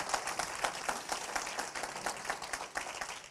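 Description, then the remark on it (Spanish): An audience applauds military members who fought for the country, a sustained wash of many hands clapping at moderate volume with a steady, dense texture and no voices standing out. “Démosle un aplauso a esos, esos militares que han peleado por este país.”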